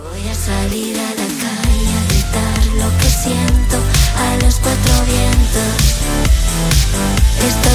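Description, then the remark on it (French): A Spanish-language song by a band plays loud, with a sung vocal over a full band and a steady driving beat. The low end drops out briefly near the start. “Alors d'habitude, on continue à se parler sur la musique d'avant, mais là, on va l'arrêter.”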